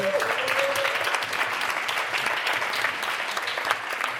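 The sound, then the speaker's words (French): Sustained applause from a sizable audience at a live radio recording as the credits are read, a dense steady patter of many hands clapping, with a brief tonal voice-like sound near the start. “Est-ce qu'on pourrait faire une radio qui est des crédits, comme ça Des heures et des heures à faire des noms et les gens applaudissent.”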